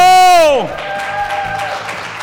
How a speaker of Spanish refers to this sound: Eh, ¡Un aplauso!